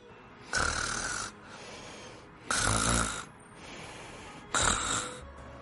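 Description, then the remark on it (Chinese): Soft snoring, three slow drawn-out breaths each lasting under a second, rasping and breathy with a low rumble, separated by quiet pauses; no one speaks. “竟然还传来微微的打鼾声”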